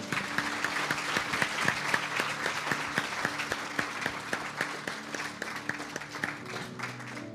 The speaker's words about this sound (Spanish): Un aplauso para ti.